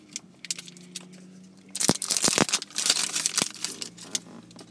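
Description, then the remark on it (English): Plastic packaging seal being torn open with the teeth in a car, a burst of crinkling and sharp snapping crackles lasting a couple of seconds over a steady low hum. “And that sound you hear is my teeth breaking open the plastic seal.”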